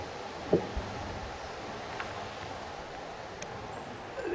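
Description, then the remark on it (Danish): A tree right beside the recorder creaks in the wind outdoors, giving a few short, faint creaks and knocks scattered over a steady background of breezy rustle, with no one talking. “utroligt, som det træ her ved siden af mig knirker.”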